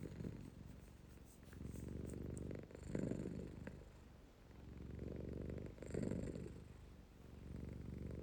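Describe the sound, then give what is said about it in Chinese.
The pet cat Yueliang (Moon) purrs steadily while its ears are being squeezed, a low, rumbling buzz that swells and eases in slow breathing cycles, roughly three rises over the stretch, with no voices. “然后我现在录的是他的呼噜声， 我们来听听月亮的呼噜声。”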